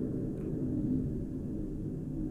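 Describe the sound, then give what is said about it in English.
A low, steady droning rumble of an airplane passing overhead, continuous, with no voices or other sounds over it. “I'm very sorry if you can hear that plane.”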